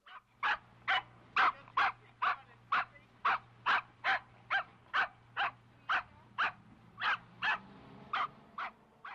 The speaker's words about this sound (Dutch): Ik heb geluisterd naar het blaffen van een hond.